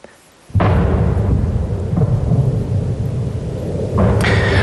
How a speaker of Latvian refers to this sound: Varam paklausīties mazu fragmentiņu, kā šonakt pēc trījiem no rīta skanēja kaujas debesīs virs Kīivas.